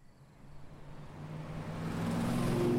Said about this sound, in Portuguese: Estão ouvindo esse carro? Posso reconhecer de longe. O Santana foi comprado nos anos 80 e chegou até Marcos como herança deixada por seu avô,